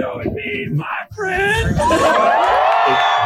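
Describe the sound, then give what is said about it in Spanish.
A crowd erupts into loud cheering and applause for a man who has just finished a 40-day challenge of eating chicken. Many overlapping shouts and whoops swell after a brief pause and hold steady at full volume until the end. “Ahí está como la gente le está aplaudiendo, le echa por los seguidores, ya cuando terminó de comerlos.”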